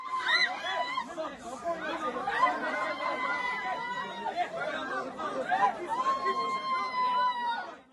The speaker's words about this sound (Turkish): Duruşmada ara verildiği sırada gerginlik yaşandı, arbede çıktı. Bir sanık avukatı ve aileler arasında yaşanan gergin anlar kameralara yansıdı.